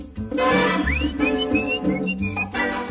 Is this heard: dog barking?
no